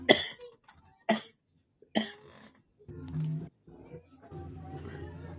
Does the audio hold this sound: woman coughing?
yes